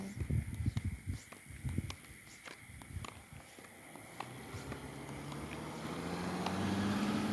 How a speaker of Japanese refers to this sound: 車の音が響くね響きますね